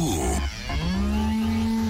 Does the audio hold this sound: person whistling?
no